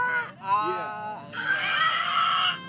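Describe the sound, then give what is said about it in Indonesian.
After a brief spoken word, a voice lets out a loud, shrill, high-pitched scream on an open 'aah' vowel, held for over a second, imitating a piercing shriek. “teriak kayak orang teriak huruf vokalnya A cuma itu melengking parah”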